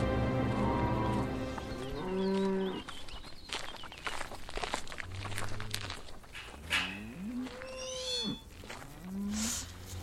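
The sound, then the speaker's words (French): A herd of Limousin cows kept by a cattle breeder moo repeatedly, with long, deep, overlapping calls and faint hoof shuffling and clatter between them; no one speaks. “éleveuse de vaches limousines.”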